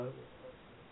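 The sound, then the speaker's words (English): A brief fragment of a thin, band-limited telephone voice of a caller on speakerphone, with a fainter hollow repeat trailing after it like speakerphone echo on the line. “you you're, doing, you're on a um, you are on a uh, speakerphone and you're echoing.”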